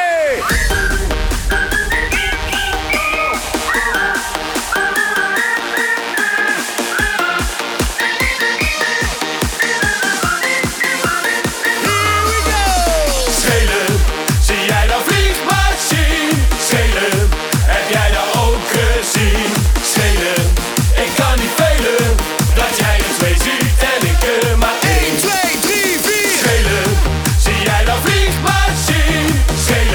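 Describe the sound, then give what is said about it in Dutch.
A new party pop single plays loudly, with a melodic intro giving way to a steady, driving thump of beats that continues to the end. “Maar nu de nieuwe single”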